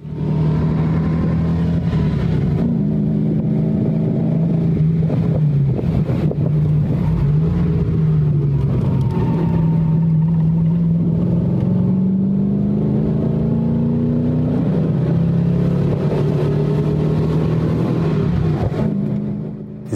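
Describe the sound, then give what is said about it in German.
A BMW 507 Series 2 sports car engine roars steadily from inside the car as it is driven hard over Alpine passes, its low drone rising and falling with gear changes and revs, joined by constant wind rush and no talking. “Und deshalb können wir uns jetzt gemeinsam kurz mal anhören, wie es in einem 507 so klingt, wenn er ziemlich engagiert gefahren wird.”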